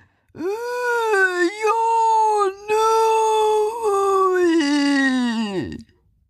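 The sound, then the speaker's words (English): A creature moaning in its sleep during a vivid dream: a long, wavering, loud moan, rising and sagging in pitch with one brief catch midway, then trailing off downward at the end. No other sounds accompany it. “And when they came in, it was moving about and it was mumbling again. It was clearly having a very vivid dream. it was moaning.”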